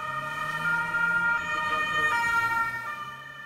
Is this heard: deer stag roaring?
no